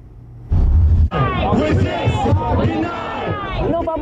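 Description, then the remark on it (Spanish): Hundreds of New York City employees protesting at City Hall against the coronavirus vaccine mandate shout in unison, many voices chanting together loudly and rhythmically, opening with a brief burst of low rumbling noise before the massed chant takes over. “gritaron hoy a coro cientos de empleados de la ciudad de Nueva York que llegaron hasta la alcaldía para protestar por el requisito que exige que demuestren que se han vacunado contra el coronavirus o que tienen una excepción”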